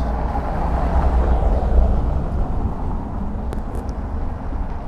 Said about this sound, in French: Je vais y aller avant que le bus passe. J'espère vraiment que ça s'entendra, ça s'entendra pas trop. Ça m'a l'air d'être fort quand même.